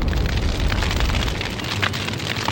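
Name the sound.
bomb explosion sound effect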